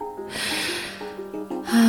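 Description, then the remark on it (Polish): A person pants rapidly and heavily after shoveling snow for about an hour while snow keeps falling, a quick run of loud, breathy gasps with a voiced edge. “Aj, szybki oddech osoby, która przekopywała śnieg przez dobrą godzinę, bez potrzeby.”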